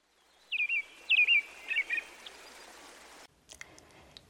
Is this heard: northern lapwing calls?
yes